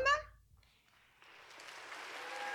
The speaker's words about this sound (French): Merci, merci. Qui toi, applaudit parce que personne ne le fait, sinon. Mais c'est un vrai public.